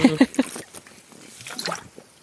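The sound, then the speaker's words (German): A few quick gulping swallows, followed by soft wet liquid sounds and faint breathing as someone drinks from a water bottle. “ich habe hier eine Wasserflasche stehen, keine Angst, ich trinke jetzt kein Bier und fange es so an.”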